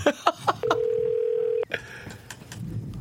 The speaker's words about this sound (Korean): 전화 한번 걸어요. 주세 2537번님한테 전화 한번 걸어보겠습니다.